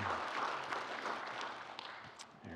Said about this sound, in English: Let's give applause for our Lord Jesus Christ.